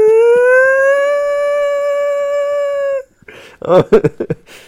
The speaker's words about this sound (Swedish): Men, men då kom jag ju på att då kan vi ju, när, testet, när, när bygget fallerar så kan vi ju ha en, eh, en lite ljud som låter. Ja, just det. Så jag, hitt, jag hittade en sån här flygsiren som lät, lät i 30 sekunder.